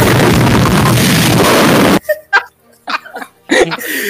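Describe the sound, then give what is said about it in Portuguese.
A firework rocket roars off with a loud, harsh hissing blast for about two seconds, then cuts out abruptly, leaving scattered voices and short laughs. “Ele não esse, falou isso, já soltou o porra do esse rojão.”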